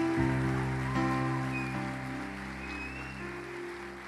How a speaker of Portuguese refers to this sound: Pode aplaudir a Jesus.